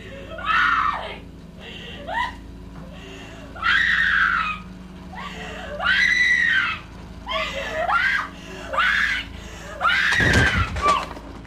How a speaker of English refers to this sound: That is like one of the most, to me, the most iconic shrieking screams in film history.